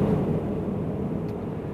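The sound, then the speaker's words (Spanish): A steady, low road rumble from a car cruising along a quiet road with very few cars and very little traffic, the engine and tire drone holding constant with no other traffic or voices breaking through. “Bueno, camino tranquilísimo hoy. Muy poquitos coches, muy poquito tráfico. La verdad es que da gusto conducir a estas horas.”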